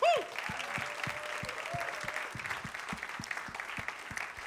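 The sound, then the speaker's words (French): An audience bursts into sustained, enthusiastic applause to welcome newcomers; it holds steady throughout, with a brief whistle at the start and a regular low thumping beat pulsing underneath the clapping. “Est-ce qu'on peut les accueillir bien fort”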